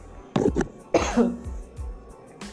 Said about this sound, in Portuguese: Ai, gente, desculpa, foi mal. Mas não deu pra eu segurar a tosse, não. Deu coceirinha aqui na garganta. É que eu acho que eu tô falando muito, deve ser isso.